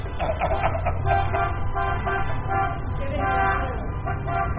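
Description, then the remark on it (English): Several car horns honk together in a loud, continuous overlapping blare, their steady pitches layered over a low rumble of traffic for the whole stretch. “They're beeping all for you.”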